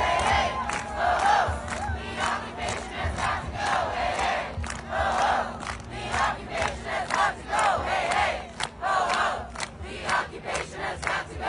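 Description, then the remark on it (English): A large protest crowd shutting down the Manhattan Bridge on a Sunday chants in loud, rhythmic bursts of shouting, voices rising and falling together in a steady cadence over a constant low rumble. “Here they are shutting down the Manhattan Bridge yesterday, Sunday.”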